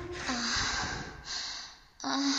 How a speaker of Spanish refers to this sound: Esa respiración, cómo va aumentando.